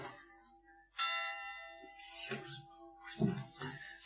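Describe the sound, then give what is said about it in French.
Bells ring out in a sustained, resonant chime: a fading tone, then a fresh loud strike around one second whose rich overtones linger, with further overlapping strokes toward the end. “Oh, je m'excuse, il faut que j'attende que cette sonnerie se termine. elle est très jolie d'ailleurs, parce je suis très content qu'elle soit enregistrée.”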